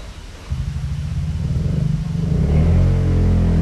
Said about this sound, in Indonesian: Bermotor anjing. Oke ada motor guys.